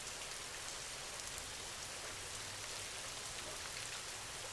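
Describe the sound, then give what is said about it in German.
Steady rain with countless raindrops pattering on a surface, a dense, even hiss with scattered brighter drop ticks, continuous throughout and fairly soft, with no voices. “Und nimm den Rhythmus der Regentropfen wahr.”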